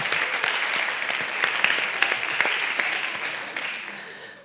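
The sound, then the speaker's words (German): An audience claps steadily, a dense patter of many hands with sharp individual claps poking through, holding loud for several seconds before gradually thinning and fading out. “Dafür ein Applaus.”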